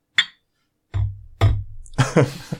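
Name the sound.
beer glasses clinking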